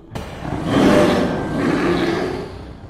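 A horrible, guttural creature roar bursts in loud, swelling to a peak around one second, then rumbling on in a second harsh wave before trailing off. No talking.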